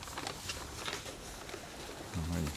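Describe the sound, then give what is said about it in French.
Startled pigeons flap in a panicked flurry, a soft patter of wingbeats coming in quick bursts, as one bird is shot during a hunt; at least about 50 birds. A brief low voice follows at the very end. “on entend les autres qui s'affolent, donc on va faire pas trop de bruit.”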